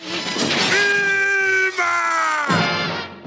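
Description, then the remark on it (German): Fred Flintstone of the cartoon series The Flintstones (German version Familie Feuerstein), voiced by an actor, lets out one loud, drawn-out scream, a strained, held, steady-pitched howl lasting about two seconds that sags slightly in pitch before breaking off abruptly, alone. “Und … ist außerdem durch einen Schrei für immer mit einer berühmten Cartoonserie verbunden.”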